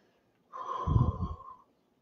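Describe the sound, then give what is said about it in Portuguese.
A single deep, calm breath taken at the start of a group session, with a breathy, slightly nasal rush of air that swells and fades over about a second, followed by quiet. “pessoal, vamos iniciar nosso encontro buscando uma respiração bem tranquila, uma respiração bem profunda.”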